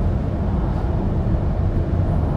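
Steady low rumble of road and engine noise from inside a moving car being driven to Nobuyama (延山), continuous and fairly loud with no voices.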